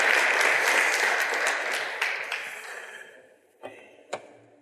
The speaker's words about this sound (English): Folks, please give them a round, a warm round of applause here. Thank you guys. Thank you very much.